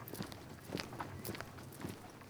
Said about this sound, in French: Quand je marche, je peux pas m'empêcher d'écouter mes pas